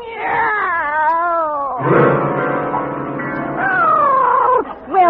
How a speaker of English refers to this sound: It's a cat, Miss Brooks. I brought him over to keep Minerva company.